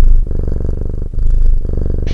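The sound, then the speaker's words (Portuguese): A cat purrs, a steady low rumble that swells and dips with each breath, cycling about twice. No voices are heard. “Agora vamos para a hora do ronron.”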